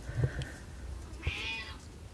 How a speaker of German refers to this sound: Es ist der ärmste Kater der Welt, der nämlich jetzt äh, gerne dann Futter hätte.